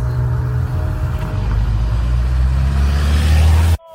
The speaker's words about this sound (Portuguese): Lilian acelera o carro. Silvana percebe algo estranho. Dessa vez, Silvana acelera o carro.